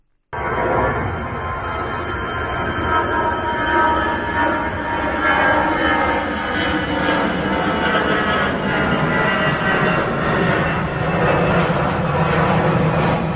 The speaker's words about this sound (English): let you hear the noise of that airplane yet again flying over our house last uh, Thursday.